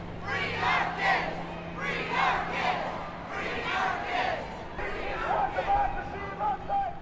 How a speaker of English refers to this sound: After the speeches, protesters began a march down Clark Street all the way south to Harrison Street. Thousands of protesters were visible, and the sound of chanting filled the air.